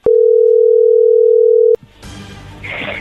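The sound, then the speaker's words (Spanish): A telephone dial tone sounds as a loud, steady single-pitched hum for nearly two seconds, then cuts off abruptly into a muffled, crackly line noise. “Le va a llamar el lobo, no haga ruido, por favor.”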